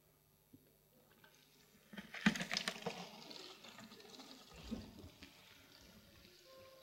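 Water pours out of a jug in a single splashy burst lasting a few seconds, then trickles off into quiet. It's fairly soft, with no one speaking.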